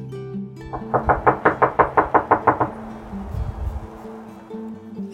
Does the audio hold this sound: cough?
no